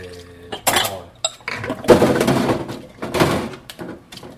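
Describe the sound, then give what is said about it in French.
Dishes and cutlery clatter and clink as someone does the washing up, a run of irregular knocks and scrapes as items are handled and set down, with a brief splash-like rush in the middle. “Ah, écoute, ça m'en fait de la vaisselle, là”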